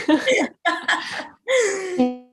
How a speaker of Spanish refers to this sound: me ahogué, tengo, una tos muy fuerte.